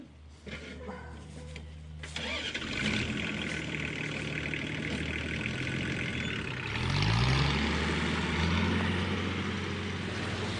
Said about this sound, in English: And so right now you can hear the tractor and uh, it's going basically down the crop, digging up the uh, kaiwa, or the mighty potatoes. And we have a couple of uncles from this area, from the Manawatu, um, digging up some of the potatoes.